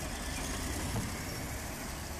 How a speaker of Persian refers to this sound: زیر لب گفتم بابا این صدای بلدوزر که نمیگذارد صدا به صدا برسد